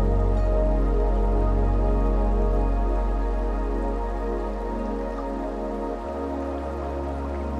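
A gentle river splashes and gurgles steadily, a soft continuous trickle of water with small droplet sounds throughout and no voices.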